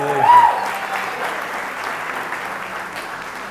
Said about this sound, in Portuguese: Uma salva de palmas para esse jovem corajoso.